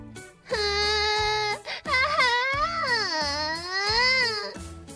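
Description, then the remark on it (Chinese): A little girl cries loudly in long, high-pitched wailing bursts, her voice rising and falling with a brief catch of breath between sobs. Nobody speaks. “妹妹的哭声更大了，路过的人都不禁盯着妹妹瞧。”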